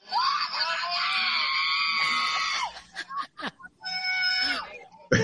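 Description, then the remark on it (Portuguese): A crowd of fans at a competition screams and cheers in a long, loud, high-pitched wail, breaks off into a few short bursts, then rises into a second shrill scream before cutting out. “Essa foi a torcida aí, tava lá.”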